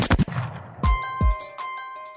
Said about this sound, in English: And then the final gunshot, the, there's actually two of them because we stop one in time. And this goes back to what you're saying is how you can stop time with sound. That the the the ultimate gunshot in the duel is actually we we stop it